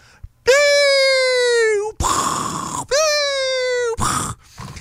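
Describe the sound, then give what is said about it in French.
A voice imitates an artillery fire simulator, the kind instructors fire around trainees, twice: a loud, falling whistle followed by a rough, hissing burst like an explosion, then the pattern repeats before trailing off. “Et ça, si vous reconnaissez pas le son, c'est un, un, qui est un simulateur de tir d'artillerie, que tes instructeurs se font un plaisir de tirer autour de toi pour déclencher euh, pour déclencher une, réaction d'alerte chez le monde.”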